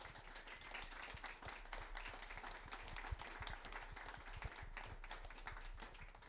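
Steady audience applause with many overlapping hand claps forming a dense, even crackle that holds at a constant level for several seconds, with no voices over it.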